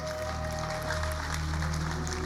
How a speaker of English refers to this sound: You are a minister. Can you clap for these ministers, please?